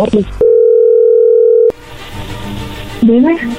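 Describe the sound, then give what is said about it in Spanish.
A steady, loud telephone dial tone hums at one unbroken mid pitch for just over a second as a call is being placed, with brief talk before it and voices speaking afterward. “Perfecto, no haga ruido, ok, ahí le estamos marcando.”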